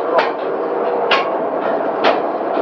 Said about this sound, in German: Was ist das für ein Zug? Das ist der Energiezug, aber ich glaube, das können die Jungs hier viel besser erklären. Was macht der Energiezug? Der Energiezug haben wir zwei Stück davon. Eine die Kopfstrecke, eine die Wandstrecke.